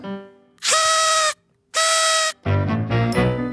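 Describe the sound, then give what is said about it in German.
Two loud, buzzy party-horn blasts of steady pitch, each lasting under a second with a short gap between, followed by a wobbling, squeaky toy noisemaker tooting; horns and whistles that pop out of a table bomb party favour. “Diese Geräusche kommen alles von Sachen, Tröten, Pfeifen, die aus Tischbomben rausgespickt kommen.”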